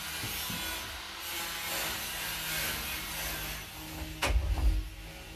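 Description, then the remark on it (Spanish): A steady rasping, scraping noise fills the background, then a door is shut to keep out the noise, with a single dull wooden thud and a brief rattle near the end. No one speaks. “Perdónenme, ese ruido, déjenme cerrar la puerta.”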